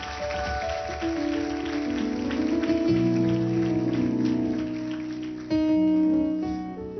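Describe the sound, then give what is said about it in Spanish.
A crowd applauds loudly and steadily for a family in the audience over sustained music chords, the dense clapping lasting the whole stretch and swelling briefly near the end as the music shifts. “mire, démele un aplauso fuerte a esta pareja, a esta familia.”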